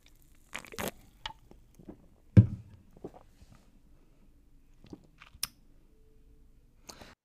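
Someone sips beer from a colorful can, held in the right hand, whose logo shows a cow jumping over the state of Wisconsin: scattered small clicks and mouth sounds, one sharp thump of the can, and soft intermittent slurps with no talking.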